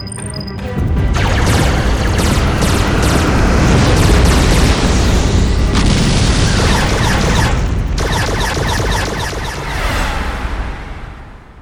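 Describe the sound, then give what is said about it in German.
Heavy weapons fire and explosions roar continuously after an order to open fire, a dense barrage of booming blasts and rapid crackling shots that stays loud throughout with no voices. “Feuer eröffnen!”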